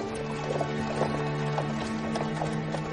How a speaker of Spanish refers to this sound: El ataúd de John Fitzgerald Kennedy viaja en una carreta tirada por tres parejas de caballos blancos. Pasan ante la puerta norte de la Casa Blanca.